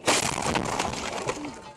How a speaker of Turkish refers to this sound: Beton mikserinin yıktığı köprünün altında kalan araçtan sağ çıktılar. Mucize kurtuluş Rusya'nın başkenti Moskova'da yaşandı. Beton mikseri çevre yolunda ilerliyordu. Yapımı süren yeni geçiş köprüsünün altından geçerken mikser geçide çarptı.